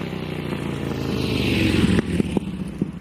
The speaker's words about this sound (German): Zweitaktmotoren die ne, von Mofas oder Vespa heißen die, glaube ich, heute, die werden jetzt abgelöst durch Elektromotoren.